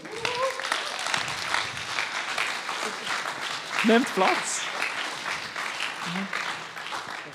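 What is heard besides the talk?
audience applause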